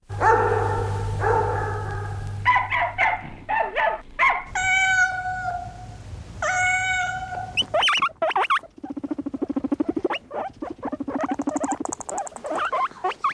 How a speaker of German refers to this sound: Vielleicht kommen Ihnen da ein paar der Laute bekannt vor. Hund, Katze, Meerschweinchen.